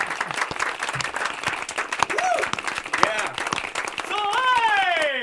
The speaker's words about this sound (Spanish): Y este premio, en este día de logros, este premio especial, el Tigre va en especial también para la presidenta de la Comisión Estatal de Elecciones. Aplausos, por favor.